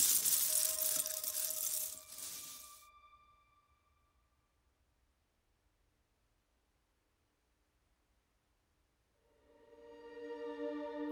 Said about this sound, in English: You try to grab it, but you misjudge the distance, and you can do nothing but stare in horror as it crashes to the floor, breaking into hundreds of tiny plastic bricks which scatter across the floor.